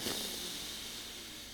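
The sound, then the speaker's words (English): A loud breath drawn in straight into the microphone during a guided breathing meditation. It is a steady, airy hiss that holds for over a second, with no one talking. “One more breath to finite return to earth center, locating your third chakra, breathing in”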